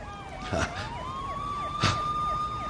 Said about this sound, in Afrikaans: Hulle sirene loei naby.